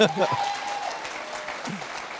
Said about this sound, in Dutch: Ja, applaus.